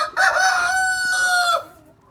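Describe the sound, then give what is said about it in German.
A single loud rooster crow of the Deutscher Sperber breed, a sustained harmonic call lasting over a second with a rising start and abrupt end, clear with no talking. “So Na? hat mein Hahn früher, äh, Quatsch, mein Wecker früher immer gemacht.”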